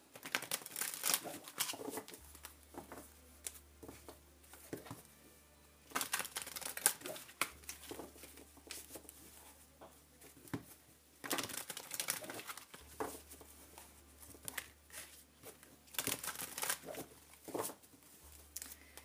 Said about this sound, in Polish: Potasuję teraz y, talię Night Sun.